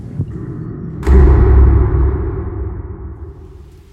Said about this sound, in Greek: Έπεσε η νύχτα, η βροχή όμως δεν έλεγε να σταματήσει.